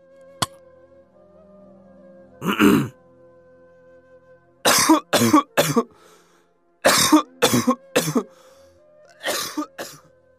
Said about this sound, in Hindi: तभी दया को खांसी आने लगी खांसते खांसते वह चरपाई से उठ बैठा